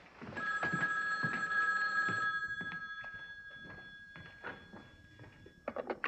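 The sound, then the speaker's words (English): An old-fashioned telephone bell rings loudly in a sustained metallic trill lasting several seconds, with a few soft thumps underneath before it stops. “Your phones have been busy for hours, Alfred, so I decided to come out here.”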